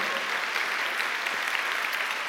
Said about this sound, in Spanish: Dale un aplauso al Señor, hermano, a su nombre, gloria.